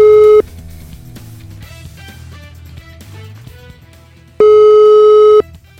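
A telephone ringing tone from a call placed by the Morning Show of Radio Caffè sounds twice, a loud steady electronic beep starting and stopping about four seconds apart, with quieter music playing underneath in the gap between the rings.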